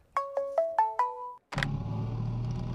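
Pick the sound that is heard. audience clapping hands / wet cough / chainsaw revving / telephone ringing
telephone ringing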